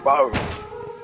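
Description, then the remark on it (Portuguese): A single heavy thud against a door, the first pounding on the door, lands right after a brief vocal sound, followed by a faint lingering ringing tone. The knock is fairly loud. “no momento em que ele toca você, eles todos ouvem a primeira pancada na porta.”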